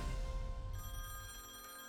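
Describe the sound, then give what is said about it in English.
A telephone bell rings in a steady, continuous trill, fairly loud, with no voices present; the phone rings before dawn, waking a sleeper. “When the phone woke Bobby up before dawn, he felt a knot in his gut.”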